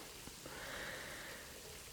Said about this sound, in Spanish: no hay nada más relajante que una humeante ducha caliente después de pasar una hora en el gimnasio